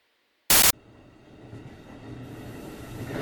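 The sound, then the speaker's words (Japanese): The last sleeper express train of the day rolls along the rails with a steady, rumbling clatter that grows louder, right after a brief, harsh burst of noise near the start. No one speaks. “本日最終の寝台特急列車”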